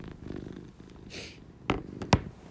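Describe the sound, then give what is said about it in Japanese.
A cat purrs in a low, steady rumble, with a couple of sharp rustling bumps near the end and no one talking. “ちょっと聞こえますかずっと地位がゴロゴロ言ってる”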